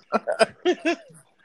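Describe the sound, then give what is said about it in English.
A dog barks about five times in quick, uneven bursts, fairly loud, with a short pause midway and no one talking. “The damn dog won't stop barking.”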